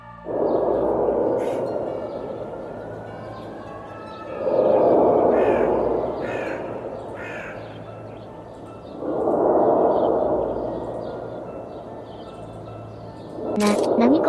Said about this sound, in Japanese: 音は最初は強い風の音かなって思ったけど、何回も繰り返されてるし風の音じゃないわよね。ああ、この不可解な音は、アポカリプティックサウンドじゃないかって言われているぜ。